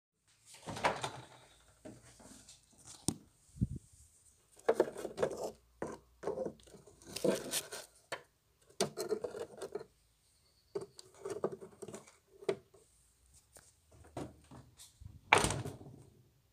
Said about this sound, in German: der Kühlschrank geöffnet wird und dann werden die Eier einzeln aus der Schale, in der wir die Eier transportieren, in das Fach in den Kühlschrank gelegt. Man hört es so ein bisschen klackern. Und am Ende wird die Kühlschranktür wieder geschlossen.